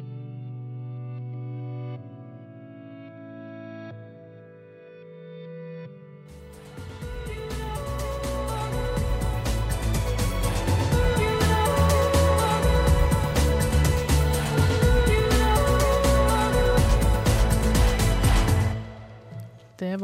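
A song plays on its own: a quiet, sparse intro with low sustained tones for a few seconds, then a full band kicks in loud and dense with bright layered instruments before stopping abruptly.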